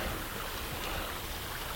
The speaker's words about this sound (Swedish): och alldeles inunder den backen så rinner det fram en bäck. Jag tror nog att det hörs eh, bäckens brus här inunder. Men den ligger så djupt nere så att man kan knappast komma ner till vattnet och känna på det.